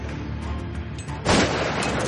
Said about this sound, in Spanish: Raquel dispara al aire.